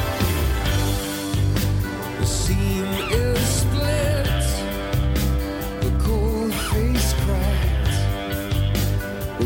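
A rock song plays loudly and steadily, with a full band of driving bass, bright cymbals and strummed guitars under a sung lead vocal that rises and falls throughout.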